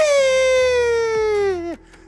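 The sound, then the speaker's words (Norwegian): A voice imitates a coffee grinder with one long, loud, buzzy whine that drifts slowly downward in pitch, then dips sharply and cuts off, leaving near silence. “Og så går jeg til coffeegrinderen, og så trykker jeg, og så lager han bare sånn”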